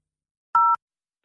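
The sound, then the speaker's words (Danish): A single short telephone keypad tone as key 4 is pressed in a voicemail menu to re-record a message, one clean dual-pitched beep lasting a fraction of a second, loud, with silence before and after. “For at indtale igen, tast 4.”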